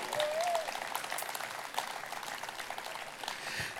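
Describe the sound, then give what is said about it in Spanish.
Audience applause during a sermon fills the moment, a dense, steady patter of many hands clapping at an even level throughout, with a brief faint tone near the start. “Oye, yo creo que eso se merece un aplauso.”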